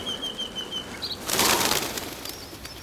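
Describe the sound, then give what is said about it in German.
A loud rush of many wings flapping at once from a huge flock of birds chasing off a swarm of insects swells up midway, a dense fluttering burst over faint high bird chirps and whistles, with no voices present. “Der riesige Schwarm an Vögeln schlägt die Insekten in die Flucht.”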